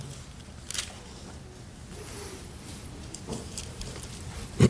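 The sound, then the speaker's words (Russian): Paper rustles in a few short, crisp bursts as pages are flipped to the Gospel of Mark, chapter 5, spread over several seconds against a quiet hum with no one speaking. “Буквально несколько страниц перевернем.”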